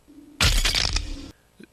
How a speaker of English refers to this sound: And that was a memorable kind of sound. Yeah, the bone crush. Here it is.